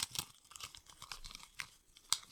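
Flowery gift wrapping paper crinkles and rustles as a small gift, about the size of a matchbox and tied with gold string, is unwrapped, in soft irregular bursts with one sharper crackle near the end. The sound is fairly quiet and no one speaks.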